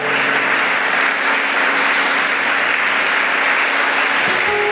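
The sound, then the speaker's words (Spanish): Sustained audience applause given to the Lord, a dense crowd clapping steadily at full volume for several seconds, with no speech over it. “Así es que denle un aplauso al Señor por estas cosas buenas que están pasando.”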